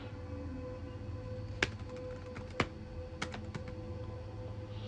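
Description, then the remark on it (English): Scattered key clicks from someone typing on a computer keyboard to look up the definition of "common sense", a few sharp taps at irregular intervals over a steady low hum, fairly quiet. “But I'm looking up common sense right now because you can't tell me that shit's real.”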